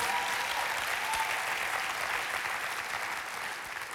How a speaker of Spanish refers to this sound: porque esta es la iglesia más chiva de todo Costa Rica y estamos aquí reunidos. Aplauda, usted es parte de eso.